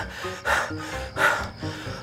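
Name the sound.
out-of-breath panting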